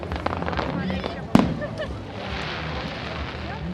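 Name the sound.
fireworks exploding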